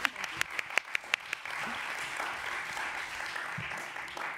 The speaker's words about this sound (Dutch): Ja, applaus alsjeblieft.